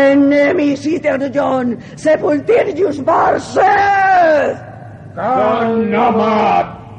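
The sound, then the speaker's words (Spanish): A voice imitates a tentacled monster screaming before the Necronomicon at an altar while waving its tentacles: loud, wavering, strained howls and bellows in a burst, then a brief pause before one last drawn-out cry. “Gritó ante el Necronomicon, agitando los tentáculos.”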